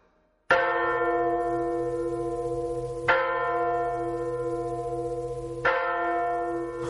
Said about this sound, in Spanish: Consiguieron sacar una, pero la otra permanece dentro de las aguas. Dicen que el 24 de junio, día de San Juan, las personas que son caritativas y generosas oyen el tañido de la campana que reposa en el fondo del lago.